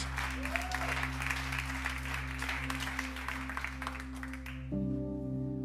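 loud audience applause

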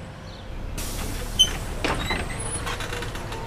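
bus arriving

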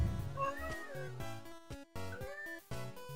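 cat meowing

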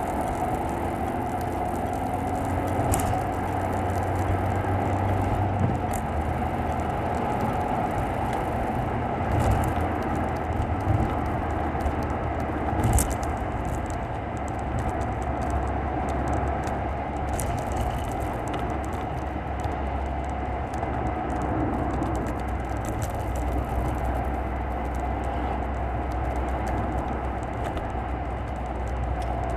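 car interior road noise

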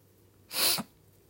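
sniffing

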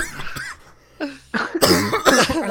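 cough

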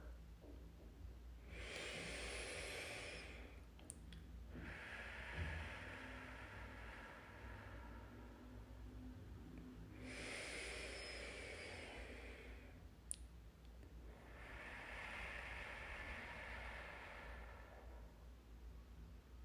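deep breathing

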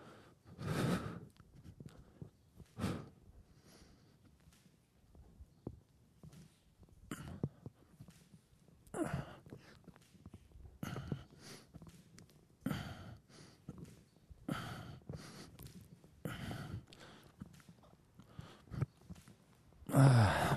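rapid

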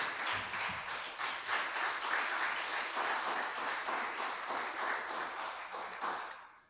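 audience applause

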